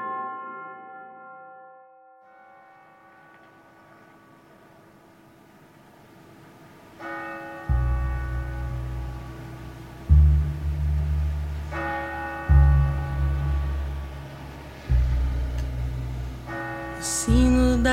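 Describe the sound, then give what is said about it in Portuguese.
A small church bell tolls repeatedly, each bright metallic strike ringing out with long shimmering overtones, roughly every two to three seconds, over a deep low rumble beneath. “O sino da igrejinha faz belém, dendem.”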